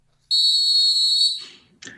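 A single loud, shrill whistle blast held for about a second, then trailing off, followed by a short burst of noise.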